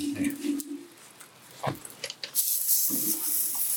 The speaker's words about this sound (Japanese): いい音。やっぱ石焼き。石焼きはすごいね。